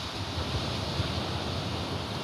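A steady wash of ocean surf on a beach at night, a dense unbroken roar with a faint low rumble and no distinct individual wave crashes, with no voices.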